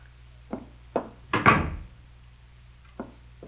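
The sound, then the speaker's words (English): Sharp knocks on a wooden door by a porter with a package, a couple at first, then a heavier thud with a short ring-out like the door shutting, followed by two more faint taps, over a low steady hum. “Someone's at my door.”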